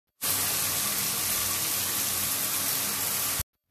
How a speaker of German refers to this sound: Und dann gehe ich jetzt mal duschen.